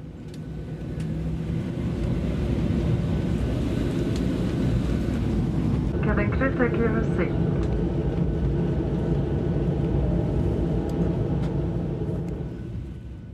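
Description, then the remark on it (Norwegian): A steady, dense low-frequency roar of jet engines heard from inside the cabin of an ordinary SAS airliner that has been converted into an air ambulance, constant throughout, with a brief cluster of faint chiming tones partway through. “Det er samme lyden du hører når du skal til Syden, Tromsø eller Bergen.”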